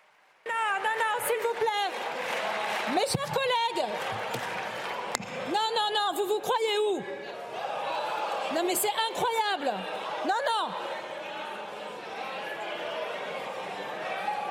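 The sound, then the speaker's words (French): NUPES deputies in the French National Assembly sing together in ragged unison over steady clapping and crowd noise, celebrating the announced vote result rejecting the senior employment index, with rising, chant-like phrases repeating throughout. “À l'annonce des résultats du vote, ils se sont mis à chanter et à applaudir, provoquant la colère de Yael Braun-Pivet.”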